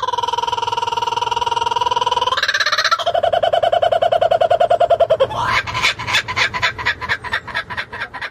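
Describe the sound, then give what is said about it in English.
A loud bird call sound effect, alone: drawn-out, rising hooting notes give way to a fast, rhythmic run of pulsing cackles that carries through to the end. “Smack the bird, and let's get into it.”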